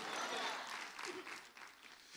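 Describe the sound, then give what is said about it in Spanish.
An audience claps their hands for the Lord during a sermon, a dense, sustained burst of applause, steady and fairly loud for about two seconds, with faint voices mixed underneath. “Dele palmas al Señor, pues.”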